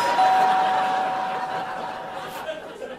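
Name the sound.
doorbell ringing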